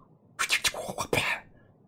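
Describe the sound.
A voice imitates a whip crack as a dramatic introduction: a loud, hissing burst about a second long, broken by a few sharp snapping accents, with no talking around it.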